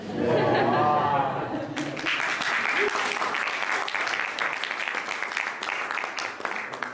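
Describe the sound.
A short burst of laughter and voices gives way to steady, dense clapping that continues at an even loudness for several seconds.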